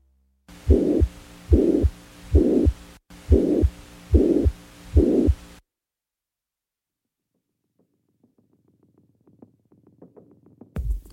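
A heart recording with a crescendo-decrescendo systolic ejection murmur, a whooshing swell between heartbeats, repeating six times in a steady rhythm, followed by silence and faint low sounds at the end.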